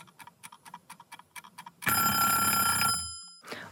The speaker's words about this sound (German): Unangenehmer Wecker. Ja, auf jeden Fall. Also, äh, wenn ich sowas noch zum Aufstehen hätte, so ein Wecker, mein Gott.